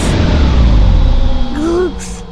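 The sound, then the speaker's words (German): A loud, low rumbling whoosh that drones steadily, then a short rising whine and a burst of hiss near the end as the roar drops away, like a sci-fi spacecraft slowing down. “Achtung Sternchen, wir legen los mit dem Bremsen. Kinder, Füße auf die Hyperstopper, wir bremsen ab in drei, zwei, eins.”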